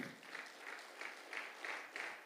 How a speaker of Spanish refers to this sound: Un aplauso a Dios.